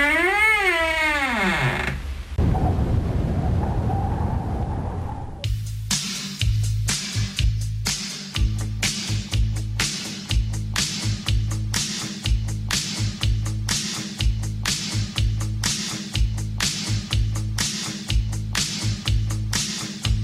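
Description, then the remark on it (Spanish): A short, creaky door swings open with a wavering squeal, followed by a hissing whoosh, then loud, driving rhythmic music with a steady beat takes over. “que primero se abre la puerta y a, mira a ver quién entra.”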